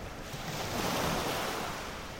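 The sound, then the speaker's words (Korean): Strong waves crash close by on the Jeju Island coast just after sunset, in a continuous, roaring wash of surf that swells slightly louder midway, with a breezy rush and no voices. “바로 옆에서 파도가 세차게 일어나자 겁이 덜컥 나기 시작한다.”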